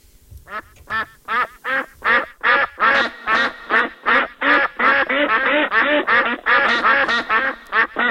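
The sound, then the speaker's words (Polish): A duck quacks loudly and repeatedly, a rapid run of harsh, nasal calls that speeds up into an almost continuous chatter over about eight seconds, clear with no talking. “Duck tak, to oczywiście po angielsku kaczka.”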